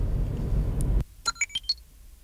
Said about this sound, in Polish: Tak pożegnała się z nami Zoe. E, masa dźwięków jest w tych nowoczesnych samochodach, jak Państwo słyszeli. E, wita dźwiękiem, żegna dźwiękiem